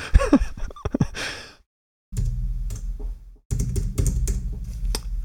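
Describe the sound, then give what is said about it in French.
Loud, rapid typing on a keyboard comes in two dense bursts of clacking keys. A brief breathy vocal sound comes first, then a short pause. “Ta femme, elle te dit pas que tu tapes trop fort non.”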